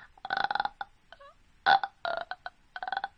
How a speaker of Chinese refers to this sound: 我们再来一次，松胸沉气，然后做半打哈欠状。你的声音像一个个小气泡一样从你的喉咙里发出。